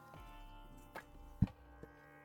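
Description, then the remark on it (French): Paper pages of a book being handled: a few brief, crisp rustles and soft taps spaced over a couple of seconds, one slightly louder, with no talking. “Là, vous entendez le papier.”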